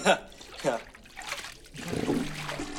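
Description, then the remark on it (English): A student's head is dunked into a toilet by teenage boys in a high school bathroom, with turbulent sloshing and gurgling that builds through the second half, mixed with brief muffled vocal sounds of struggle. “Dunk One of them dunks his head in a toilet.”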